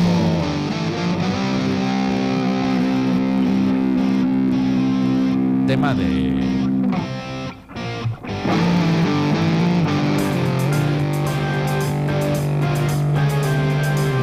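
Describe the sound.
A distorted electric guitar plays a loud rock riff of sustained, shifting chords, breaking off briefly midway before resuming, with people talking over it.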